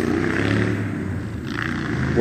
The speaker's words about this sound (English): And my bus has just arrived now.